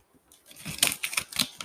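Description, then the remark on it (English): Crisp crunching and crinkling of gift ribbon and wrapping paper as a present is unwrapped near a microphone for ASMR, a run of sharp rustling bursts in an uneven rhythm, with no talking. “Wait, can you like um do this crunchy?”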